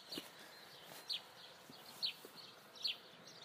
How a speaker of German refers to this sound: Also, jetzt lasse ich jetzt mal die Hühner raus. Vielleicht hört ich sie schon im Hintergrund. Das ist nicht das Vogelgezwitscher, sondern die wollen da raus.